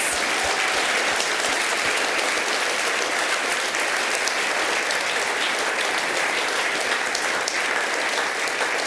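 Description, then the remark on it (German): Sustained audience applause thanking a guest speaker at a church audience in Frutigen, a dense, steady wash of many hands clapping at even loudness for the whole stretch, with no voices standing out. “Herzlichen Applaus.”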